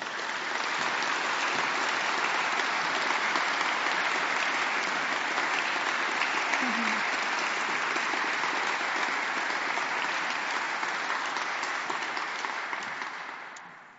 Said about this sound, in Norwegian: Og derfor er du nominert, og jeg ønsker at vi gir en varm applaus